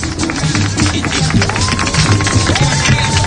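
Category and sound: crowd, applause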